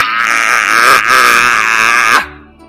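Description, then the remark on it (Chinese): A human voice imitates a lion's roar: one loud, sustained, raspy bellow lasting about two seconds, with a brief catch partway through, then cutting off abruptly into near silence. “他又吼了好一阵，啊！”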